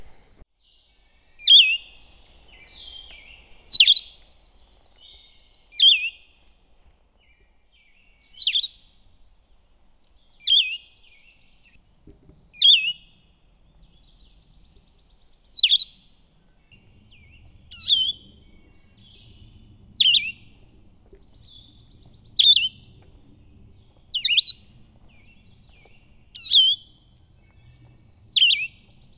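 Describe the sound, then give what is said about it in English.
Wild birds sing outdoors on the Appalachian Trail, recorded with a parabolic microphone in a quiet setting, a bright, high phrase repeating about a dozen times at steady intervals, clear, with no talking. “So I get asked a lot what my favorite bird is, um, which is a difficult question to answer um, in the context of the Appalachian Trail and bird songs.”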